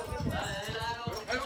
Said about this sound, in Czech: tady jezdí prostě ještě pořád na koních s koňským povozem. Jo, tady jezdí s koňským povozem, jsem teďka na Kubě